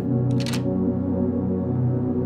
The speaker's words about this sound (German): Es sieht so aus, als ob du damit die hölzerne Tür, die sich in der Mitte des Stammes befindet, aufsperren kannst. Du steckst den Schlüssel in das Schlüsselloch und lauschst dem Klicken.